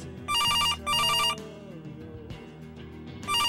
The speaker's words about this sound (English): The phone rings. I try not to notice. None of my folks answers.